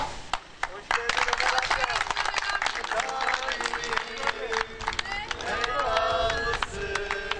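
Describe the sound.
A group of people clapping steadily for several seconds, a dense patter of handclaps close by, with voices and chatter mixed in underneath.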